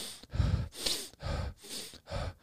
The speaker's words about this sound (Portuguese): Pensa, 45 minutos respirando forte pelo nariz, soltando pela boca. 45 minutos, quase uma hora.